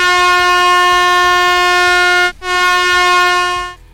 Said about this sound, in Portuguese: Bom, então põe uma buzina só para encerrar o quadro e ir pro próximo assunto, vai.